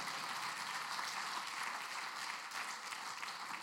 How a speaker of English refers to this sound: Since last September, we've seen over 100 people give their hearts to Jesus. Come on, give God a big clap of praise for that.